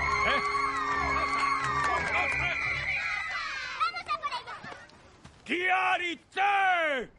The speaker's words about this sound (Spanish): Un grupo de niñas aplaude.